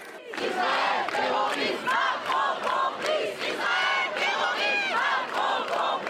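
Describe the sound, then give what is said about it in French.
A large crowd of protesters at a demonstration, contained by a large number of police, chants and shouts in unison, loud, with repeated rhythmic cries rising and falling over a dense wall of voices throughout. “Un nombre important de policiers pour contenir des manifestants qui voulaient se faire entendre.”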